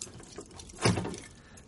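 A padlock is pulled off a door: faint scraping and fiddling, then one brief metallic clunk with a short rattle that fades away. No one speaks.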